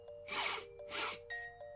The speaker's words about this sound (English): It was a sniff coming from the side of some reeds by the swamp.